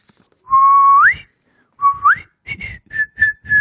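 A clear whistled pop melody: two held notes that each slide upward, followed by a quick run of short, bright whistled notes, with no voices.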